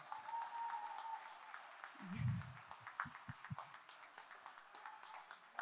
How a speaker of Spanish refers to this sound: pido un fuerte aplauso para ella.